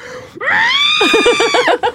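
A person lets out a loud, high-pitched pained scream, performed as a vocal imitation. It rises sharply, holds strained for over a second, then breaks into quick wavering pulses before cutting off.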